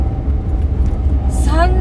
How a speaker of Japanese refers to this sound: ジムニー音うるさいっすよ。本当に。ジムニーの中はね、音楽も聴けなければ、あの、会話もできないっていうね、そういう車なんで、もうこれクラシックカーの類ですよ。もう20年以上乗ってますからね。